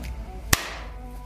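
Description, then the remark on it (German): A single sharp hand clap, made to sync the audio track, cracks out once, loud and abrupt, with a quick fading tail over a faint steady low hum and no voices. “Probieren wir mal mit dem Klatschen.”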